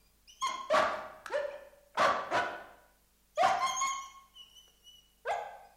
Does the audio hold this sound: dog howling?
yes